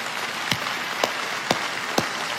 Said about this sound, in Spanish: Así ah, va, aplauda bien.